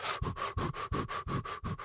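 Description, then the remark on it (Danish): A person imitates a dog sniffing, with a quick, steady series of about six breathy snuffles and no talking. “og ånder ham, så nærmest ind i nakken.”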